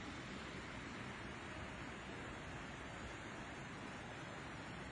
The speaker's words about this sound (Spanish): Si tú pasas por aquí por el puente, no hay algún señalamiento que hay una cascada, algo, lo miras porque vienes de frente y miras el caído de la, del agua, por eso que lo identificas que es una cascada